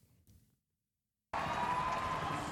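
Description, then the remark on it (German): After a brief low murmur and a moment of silence, loud crowd applause and cheering burst in suddenly at the finish area of a marathon as Kipchoge runs toward the finish line. The applause holds steady as a dense, continuous roar from thousands of spectators, with a thin whistle-like tone running through it. “So, und jetzt brandet hier der Applaus auf.”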